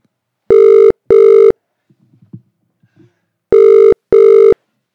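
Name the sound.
telephone ringing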